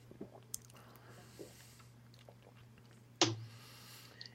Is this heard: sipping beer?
yes